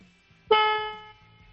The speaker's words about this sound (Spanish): Venga, vamos a darle un, un toquecito al claxon de un par de segundos, ¿vale? A ver, a ver cómo suena.